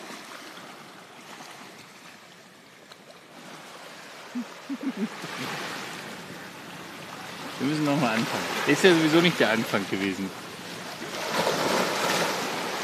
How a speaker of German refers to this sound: Also, ist das hier nicht so, dieses ganze Meer hier immer ringsherum, hoffentlich stört euch das nicht hier. Das ist übrigens auf den Malediven öfter so, dass das Meer hier so rauscht. Also lasst euch davon nicht beirren.